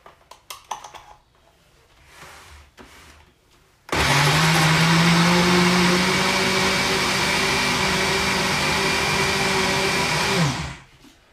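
A few soft clicks and knocks, then a blender mixing banana pieces with a quarter litre of milk into a milkshake roars to life at about four seconds, whirring loudly and steadily with a droning hum for around six seconds before cutting off abruptly.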